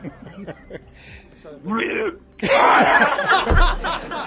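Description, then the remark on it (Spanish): A person vocally imitates a cow regurgitating, with throaty gurgling and retching noises that build into a loud, rough, sustained burst, mixed with a bit of laughter. “¿Cómo es el ruido de la vaca cuando reurgita”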